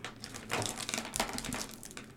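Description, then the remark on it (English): Pens being fiddled with, a run of irregular small clicks, taps and plasticky rattles that keeps going steadily for a couple of seconds with no one talking. “it's me playing with pens.”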